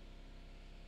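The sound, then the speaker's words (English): A steady mechanical drone from an air compressor running in the background, a low, even motor hum with a faint whine above it, fairly quiet and unchanging throughout. “oops, there's a compressor. I guess I forgot to flip it off.”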